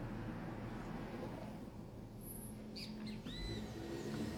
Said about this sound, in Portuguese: Eles começam a cantar bem cedo por aqui. Quando é umas quatro e meia, 15 para cinco começa uma cantoria de pássaro. Tem muito pássaro aqui na região.